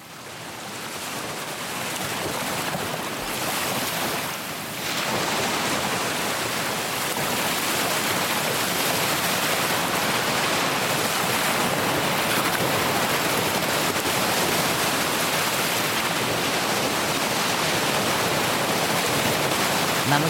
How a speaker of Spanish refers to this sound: No, en esta ocasión, por favor, disfrutar del espectáculo de la naturaleza puro y sencillo y con el silencio y el murmullo de las olas.